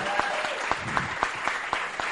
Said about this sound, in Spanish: Y primero quiero que demos un fuerte aplauso a todos los que se pararon aquí adelante porque es muy merecido. Fuerte, fuerte, que se escuche.